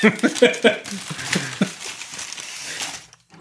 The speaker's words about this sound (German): Eine, eine Tüte vom Bäcker? Ein fürstlicher Imbiss. Äh, das sind äh, Quarkbällchen.